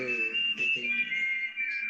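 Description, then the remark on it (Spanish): A high, piercing whistle from the music of the film A Fistful of Dollars holds a long, steady melodic note with slight wavering, clear, over faint lower accompaniment that fades in and out. “técnica musical, el silbido ese en particular llega súper alto y no es tan fácil llegar tan alto en un silbido.”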